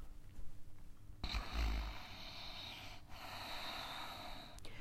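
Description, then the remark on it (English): A slow, forceful yogic sound breathing practice breath drawn through the throat with the tongue to the roof of the mouth, giving a rough, snore-like rasp, starting after a brief quiet moment and continuing steadily, with no talking. “If you snore, you know you're doing the technique right for practice.”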